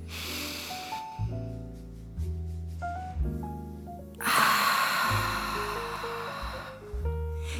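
Slow, deep breathing through the nose during a breathing exercise, inhaling very slowly to fill the chest and stomach, airy, with a long hissing breath in the second half, all over a steady bed of soft instrumental music.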